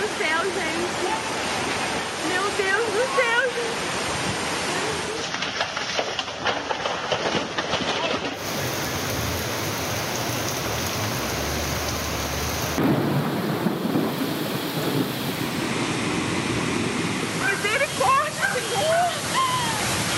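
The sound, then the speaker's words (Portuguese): Loud, constant roar of heavy rain and rushing floodwater during a rainy-season flood, with abrupt cuts between scenes; excited voices speak over the downpour in places. “Passam os verões e as tragédias se repetem na época das chuvas.”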